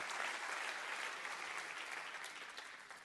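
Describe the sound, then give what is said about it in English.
An audience claps hands together in a dense, steady burst of applause, many overlapping claps forming a bright, noisy wash that holds loud throughout and eases slightly toward the end. “Let's clap our hands and rejoice in that right now.”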